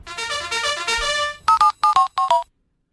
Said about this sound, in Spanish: Qué bonito esto, no me digan ustedes. Siempre me gusta a mí lo del telefonito porque le da cierta vidilla al asunto.